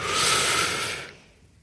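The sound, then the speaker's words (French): A single deep breath: a loud, airy rush of air lasting about a second before trailing off into near silence. No one speaks. “Bah, en fait, si vous réfléchissez bien, si vous êtes fumeur, a priori, si vous juste quand vous avez besoin d'une clope, c'est juste que vous avez besoin de respirer un coup, quoi. Une vraie respiration, genre.”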